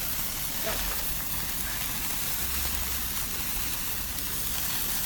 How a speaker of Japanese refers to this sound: 花火って楽しいね